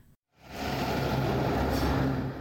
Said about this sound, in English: That's the sound of an Alexander local school bus returning from its afternoon student drop off.